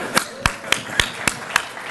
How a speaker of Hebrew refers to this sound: כפיים.